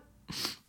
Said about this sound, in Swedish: Så det blev liksom typ en, en halv nys.